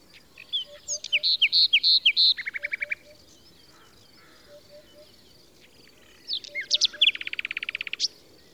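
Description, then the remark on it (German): A common nightingale, a small brown migratory bird, sings alone in two bursts of varied phrases: a run of clear repeated whistles into a rapid buzzing trill, a pause, then sharp notes and a fast rattling series. “Prominente Komponisten wie Ludwig van Beethoven oder Johann Strauss ließen sich von dem Gesang der Nachtigall inspirieren und haben ihn in ihren Kompositionen nachempfunden.”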